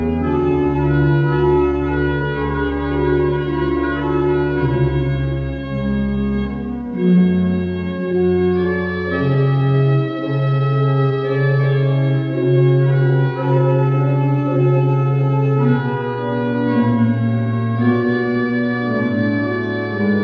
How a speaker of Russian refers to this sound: Торжественная мелодия органа вступала еще на начальных титрах.